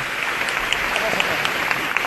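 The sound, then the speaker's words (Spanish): The public gathered on Calle San Pablo, in front of the Magdalena parish church, gives an ovation during a Hermandad de las Aguas procession: a dense wash of many hands clapping with scattered sharper claps standing out, loud and sustained throughout. “Y la ovación del público que se congrega aquí en la”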